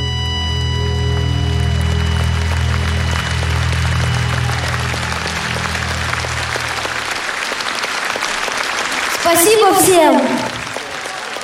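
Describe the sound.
Steady audience applause after a sung performance, with a sustained low musical chord fading out beneath it; a man speaks briefly over the clapping near the end.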